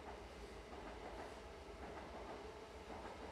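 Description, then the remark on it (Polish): A train rolls along the rails with a steady low rumble and a soft, rhythmic clickety-clack of wheels, heard quietly, with no voices. “Myśli i pociągi przejeżdżają przez nią, a Ty tylko na nie patrzysz.”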